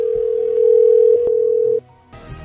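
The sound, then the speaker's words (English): A steady, loud electronic telephone dial tone after the other party hangs up on the call hums at one pitch for nearly two seconds, then cuts off abruptly, leaving a faint low rumble and a soft burst of noise at the end. “Nobody hangs up on the corporate office.”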